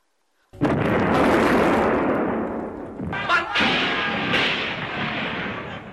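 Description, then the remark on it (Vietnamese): After a moment of silence, a loud burst of gunfire and artillery explosions erupts and continues as a dense, rumbling barrage, with further sharp blasts, as troops and residents of Hanoi, Vietnam open fire at 8 pm on 19 December 1946, starting the nationwide resistance war. “Đèn điện toàn thành phố vụt tắt, quân và dân thủ đô nổ súng, mở đầu cuộc kháng chiến trong toàn quốc.”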